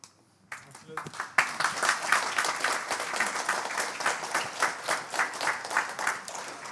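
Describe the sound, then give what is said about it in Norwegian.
An audience breaks into loud, sustained applause that starts quietly and swells after a second, with many hands clapping at once and a faintly pulsing rhythm running through it. “Nå må dere ikke bare klappe for de eh, Snille.”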